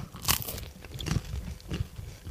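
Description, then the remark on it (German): Crunchy bites into a small piece of bread, eaten to cleanse the palate during a tasting, followed by soft chewing, a few distinct crackly crunches spaced over a couple of seconds, with no talking. “Nimm ruhig mal ein Stückchen Brot, dann kannst du schon mal ein bisschen was hier Dankeschön. reinigen.”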